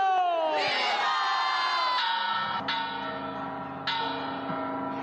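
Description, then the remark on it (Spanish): A large bell, the same one the priest Miguel Hidalgo rang to call the rebellion in 1810, tolls about four times in Mexico, each strike ringing with long, shimmering overtones, while a big crowd roars and cheers loudly underneath. “al tañido de la misma campana con la que el cura Miguel Hidalgo llamó a la rebelión en 1810”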